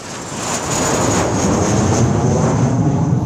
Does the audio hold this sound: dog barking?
no